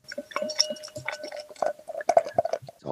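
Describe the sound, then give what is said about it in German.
Dark wheat beer from Upper Bavaria pours into a glass with bubbling, gurgling liquid sounds and a few light clinks of glass, fairly quiet, with no talking. “Ich habe es aufgemacht, habt das gehört? Ja, Prost. Ach, ich schütze mal ein.”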